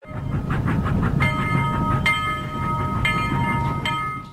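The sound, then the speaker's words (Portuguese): A train rolls along the rails with a loud, steady low rumble and rhythmic clatter, while a sustained horn-like tone sounds over it in several pulses. No voices are heard. “Bora pegar o trem de volta para ouvir o que ela quer contar?”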